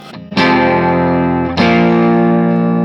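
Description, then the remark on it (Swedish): Crunchy electric guitar through an overdrive pedal set to just break up with a little grit on top: two loud, gritty strummed chords, the second about a second after the first, each ringing out thick and sustained with a slightly broken-up edge. No talking. “Jag Tyckte om när den var så här, eh, också eh, när man verkligen så här lät den precis spricka upp som lite grus på toppen pedal.”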